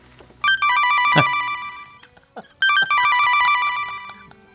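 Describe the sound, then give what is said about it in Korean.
A phone rings loudly with an incoming call from a husband, in two long bursts of bright, rapidly trilling electronic tones, with a brief pause between them and no one talking. “어? 남편이네 또 왜 전화했지?”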